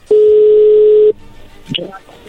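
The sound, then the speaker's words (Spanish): A single loud, steady telephone ringback tone as a call is being dialed, lasting about a second, then cutting off, followed by faint muffled voices and line noise. “Ahí se está marcando, no haga ruido.”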